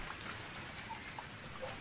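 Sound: rain falling at night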